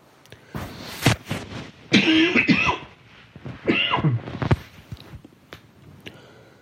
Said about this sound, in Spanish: un segundito, tos.